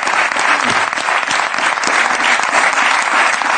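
Steady audience applause fills the whole stretch, many hands clapping at once in a dense, loud wash with no pauses, close and continuous from start to finish.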